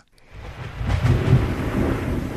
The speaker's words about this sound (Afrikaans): Toeskielik kom daar 'n wind op oor die grasveld. Weerlig verlig die hemel en die donder weer slaan hard.